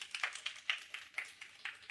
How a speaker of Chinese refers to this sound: 把掌声归给耶稣，